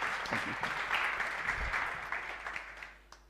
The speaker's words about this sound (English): Fantastic. Thank you very much. Round of applause